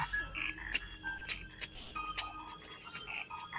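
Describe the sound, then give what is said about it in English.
A rapid string of short electronic beeps and blips at varied pitches, with soft clicks between them, from a phone app optimized for the VoiceOver screen reader, signalling what is happening on screen, chirping along clear with no talking. “So you'll hear beeps and bloops and things like that that basically tell you what's happening.”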